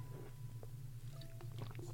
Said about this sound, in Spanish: perdón, que estaba echando un traguito de agua